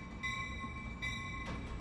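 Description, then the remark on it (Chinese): The K28 passenger train from Pyongyang, North Korea, back to China, rumbling along, its steady low roar topped by a constant high whine, with a few brief hissing surges and no voices. “其他所有人是要一起在第二天集合，然后一起坐大巴车到平壤火车站，有导游帮我们送上反的 K 二八次列车，就是从朝鲜回到中国。”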